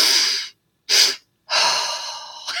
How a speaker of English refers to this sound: you know, I like people it walking by my office are like, are you okay? I'm like, oh, yeah, I'm just breathing. and you know, and it, I know, and it, and it works. And so I do about three or four rounds of that